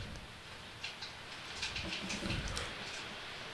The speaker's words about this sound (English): Oh my God! You can hear the rain.